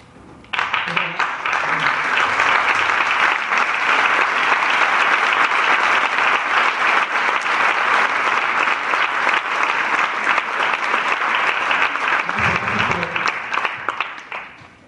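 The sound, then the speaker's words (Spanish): Sustained audience applause, a dense steady clatter of many hands clapping that starts abruptly and holds loud for about fourteen seconds before tapering slightly at the end. “pero no es necesario que me aplaudas”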